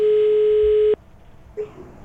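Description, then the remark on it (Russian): A steady, loud telephone ringback tone on a call to Andrei Tsvetkov, Sverdlovsk Region health minister, holds for about a second, then cuts off abruptly, followed by faint line noise and a brief short blip of the tone returning. “Так, гудки есть. Ну, будем надеяться, сейчас Андрей Игоревич все-таки трубку поднимет.”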